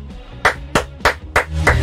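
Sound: applause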